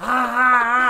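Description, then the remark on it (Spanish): A voice imitates a blender with one steady, buzzing vocal drone, held at a nearly constant pitch and moderate loudness for about a second. “yo, yo, yo, siento que mi licuadora suena así, güey.”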